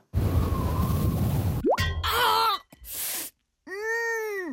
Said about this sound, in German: So klingt es, wenn Ihnen aus Versehen ein Goldbarren auf den Fuß fällt.